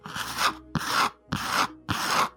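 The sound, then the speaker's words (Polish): Four rhythmic rasping scratches on a wooden door, each about half a second long with brief pauses between, fairly clear, like claws dragging against it, made as a sound effect. “do drzwi drapanie.”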